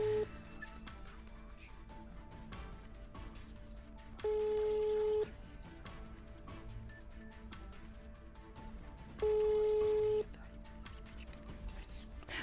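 Two long ringback tones on a phone line during a live broadcast as someone tries to get through, each about a second, sounding a few seconds apart, steady and clear over a low murmur of background noise.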